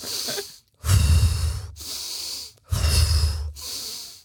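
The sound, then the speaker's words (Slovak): Slow, deliberate breathing in a square breathing exercise: two strong, noisy breaths alternate with softer, airy ones, each lasting about a second, with brief silent gaps between, like a paced inhale-exhale exercise. No talking. “tak si predstav štvorec, a ten štvorec je, že dve časti vydychuješ a dve bočné časti vydychuješ.”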